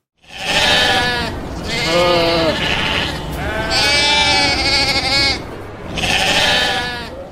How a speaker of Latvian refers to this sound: Kas tās bija? Cūkas? Aitas. tās bija aitiņas, un kur jūs viņus satiekat? Pie babas laukos.